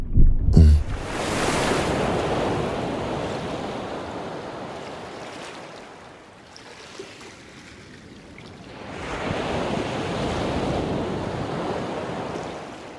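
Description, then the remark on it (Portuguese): Ocean surf near the shore rolls in broad, hissing washes in the late afternoon, one long surge that fades to a lull before another wave swells back up, steady with a faint windy rumble. “Uma contagem regressiva rumo às ondas que deslizam acima.”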